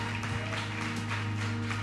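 An audience claps together in a steady, fairly distant wash of applause, layered over a sustained low hum from instruments or a sound system, with no one speaking.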